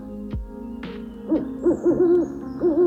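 A soft thump and a brief rustle, then an owl hoots a run of clear, low notes in quick uneven bursts, with a final longer hoot, over a faint steady background hum.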